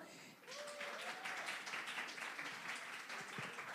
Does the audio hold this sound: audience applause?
yes